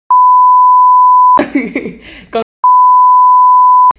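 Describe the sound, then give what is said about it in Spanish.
Two long, loud, steady censor beeps, each about a second, bracket a brief burst of speech between them, a flat electronic tone sounding over names being spoken. “Y yo di los nombres que voy a para poner pitido ahí.”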